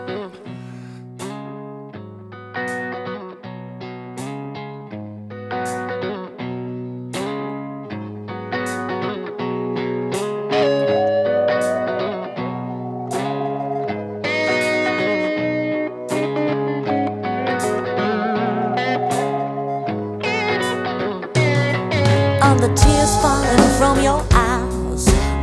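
A blues recording plays at steady volume, distorted electric guitar lines ringing over a sustained backing, building to a fuller, noisier crash of instruments near the end. No one speaks.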